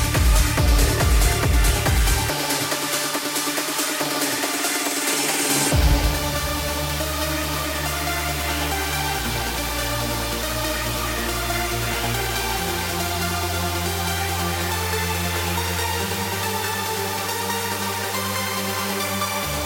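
A loud electronic trance track: a pounding beat opens, then a thick, gritty bassline steps between notes under dense, buzzing hoover-style synths, playing continuously with no voices.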